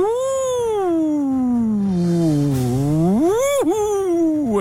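A voice imitates a spooky ghost wail as the sound of a new 'ghost telephone', one long wavering "oooh" whose pitch glides slowly down, then swoops back up before a quick dip, loud and steady with no other talk.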